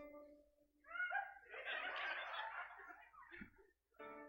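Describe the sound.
A person imitates a rooster crow with a strained, squawking voice that sounds more like a gull's cry, rising and breaking over a couple of seconds, followed by a short voiced sound.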